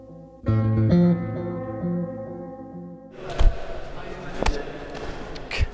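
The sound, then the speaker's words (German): After a brief musical intro, karate sparring: scuffling movement punctuated by a few sharp, echoing thuds at irregular intervals as one fighter attacks with the left fist while holding a recorder in the right hand, and the training partner blocks, twists the arm and strikes back. “Was ihr hier hört, das bin ich beim Karate.”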